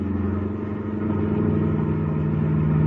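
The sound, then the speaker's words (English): A car engine roars steadily and builds in loudness, a deep rumbling motor accelerating as the car pulls up alongside another car during a chase, with no voices over it. “Now come up alongside the other car. But come on, step on the gas.”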